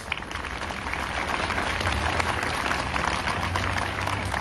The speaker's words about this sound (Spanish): Fuerte el aplauso, claro que sí. Y para todos y cada uno de ellos.